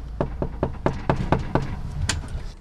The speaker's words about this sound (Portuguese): Não custa nada bater à porta do número 1 de Ninhures. Primeiro bater de porta em Ninhures, ninguém vem, tenta-se agora com um pouco mais de força.